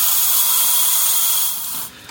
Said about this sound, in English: obligatory steaming sounds.